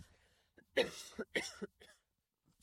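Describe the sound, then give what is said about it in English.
A fit of harsh coughing, two or three rough bursts in quick succession, then quiet. No talking, just the raspy coughs. “sorry. That's all right. Cough for yeah”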